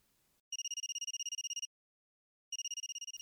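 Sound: mobile phone ringing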